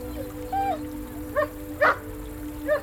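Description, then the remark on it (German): A dog gives four short, high yips and barks, spaced about a second apart, with the third the loudest, over a steady low background hum. No one speaks. “Bei der Brücke setzte er sich und wartete reglos, bis im Licht der Laterne der Hund auftauchte.”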